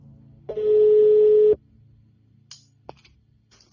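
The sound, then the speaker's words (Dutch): A single steady telephone ringing tone, heard while placing a call, sounds for about a second, loud and continuous at one pitch, then cuts off, followed by faint clicks and a low background hum. “De volgende ochtend bel ik hem meteen.”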